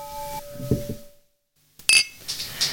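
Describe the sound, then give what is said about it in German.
After a brief silence, glasses clink together once in a toast, a bright, ringing chime, followed by faint rustling and handling sounds. “Und zumindest werden wir jetzt die Chance nutzen, auch nochmal auf sie anzustoßen, würde ich sagen.”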